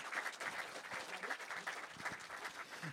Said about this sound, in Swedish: Här märkte jag en grej. Alla applåderar. Det är en sak som människor gör.